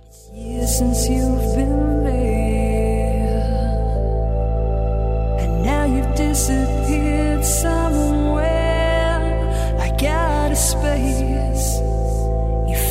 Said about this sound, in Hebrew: לא, שירים שלי לא היו כפרות עליכם, אבל שירים שאני אוהבת יש. תקשיבו לזה.